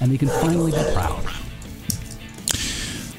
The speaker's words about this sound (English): I apologize for the barking dogs. There's something going on outside that.